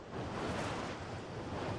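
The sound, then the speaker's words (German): A steady, continuous whirring roar from wind turbines on a mountain ridge beside a village, broad and airy like rushing wind, at times as loud as an aircraft, holding an even loudness throughout with no voices or other sounds. “Er hört das Surren der Windräder manchmal laut wie ein Flugzeug, Tag und Nacht.”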